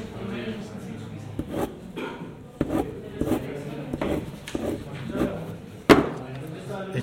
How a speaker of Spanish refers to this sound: Ah, bueno, lo que se oye ahora es mi cabeza metida dentro del cubículo de cartón en el que viene uno para votar.